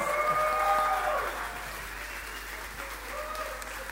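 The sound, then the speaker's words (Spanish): An audience claps steadily to welcome a pastor, in a dense, continuous wash of applause that eases slightly in volume after the first second and carries on without a break, with some faint tonal sound underneath early on. “Recibamos con fuertes aplausos al pastor”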